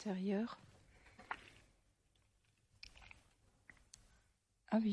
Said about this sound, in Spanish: Acabo de tragar saliva y...